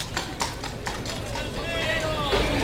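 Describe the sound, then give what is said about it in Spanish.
A horse on duty in a bullfight leaves at a long trot, hooves in a quick, steady clip-clop rhythm on firm ground, with a murmur of voices and crowd noise rising behind the footfalls. “al trote largo se va este caballo de turno.”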